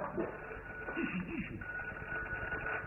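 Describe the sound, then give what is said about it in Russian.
A telephone rings twice with a steady, mid-pitched electronic tone that holds through the second half, over a muffled, noisy background with a brief murmur of voice earlier. “Нет, это два звонка, это не нам.”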